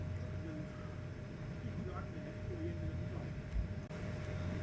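Faint, indistinct conversation from people sitting at a distant table drifts in and out over a steady low rumble of background noise, with no words clearly audible.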